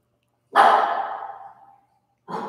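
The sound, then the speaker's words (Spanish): A dog barks, one loud drawn-out bark that trails off, followed after a short pause by a second bark cut off at the end. No one speaks. “Es que va a estar ladrando, baby.”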